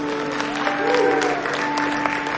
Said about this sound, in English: And then final reminder is Mother's Day is coming up, everybody. It is Sunday, May 14th. Let's have a nice round of applause for the moms in advance.